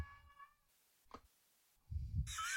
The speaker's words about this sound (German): das ist die Katze, die gleich aufs Klo muss.